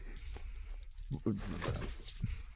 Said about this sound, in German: du gehst mal runter, Kollege. Entschuldigung, der Hund kommt ja. gerade hoch.